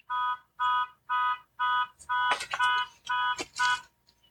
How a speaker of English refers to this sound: Was that? And That probably wasn't ours. Yeah, it stopped, so I guess it wasn't. Uh, yeah. There was a a car alarm. alarm going off.